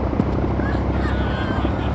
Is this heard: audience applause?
no